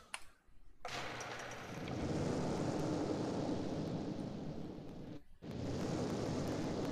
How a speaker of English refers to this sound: as uh, you guys blow up with a uh, fireball.